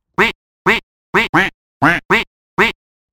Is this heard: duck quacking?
yes